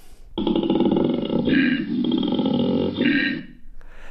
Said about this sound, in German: Wenn ein Koalabär aber Lust hat, also rollig wird, ja, und sich fortpflanzen will oder muss, dann holt plötzlich der Koalabär den … in sich heraus und dann klingt das so.